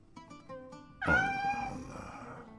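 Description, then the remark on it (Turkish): A household cat that has come to a neighbour's house lets out a loud, drawn-out meow following a few softer chirpy sounds, with the wavering cry trailing off gradually. “Bizim kedi buraya gelmiş.”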